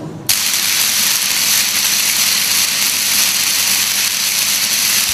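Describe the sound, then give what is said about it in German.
A Tesla coil's electrical arc discharge bursts on abruptly and keeps going as a loud, steady, harsh crackling buzz for several seconds, with no talking. “Also was wir da gehört haben, war ein Stromüberschlag, in dem Fall von einer Tesla-Spule.”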